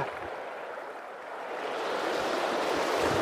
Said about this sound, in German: Es geht mir jetzt schon über die Knie. Ja, ich muss weiter runter. Ich muss locker noch 50 Meter, 40 Meter den Fluss abwärts laufen, dass ich rüberkomme.